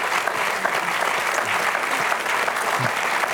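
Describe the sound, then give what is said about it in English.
A crowd at a memorial service applauds the glory and grace of God seen in Peter, a dense, even wash of many hands clapping at a constant loud level throughout, with no voices standing out. “We'll just applaud the glory and grace of God that we saw in Peter.”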